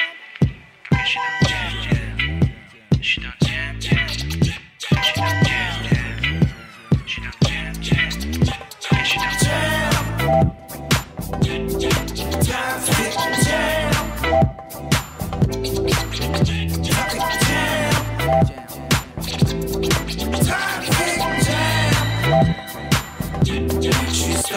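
A French rap song plays loud and continuous, with a steady, punchy beat driving under dense layered music and vocal lines, with only brief drops in the rhythm.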